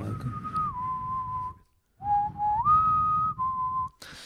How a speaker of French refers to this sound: Je propose de, faire un sifflement euh, pour faire.